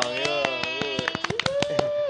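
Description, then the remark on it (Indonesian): Steady rhythmic hand clapping, about ten sharp claps in quick succession, over a sustained humming voice or held musical tone, moderately loud. “Tepuk tangannya dulu dong.”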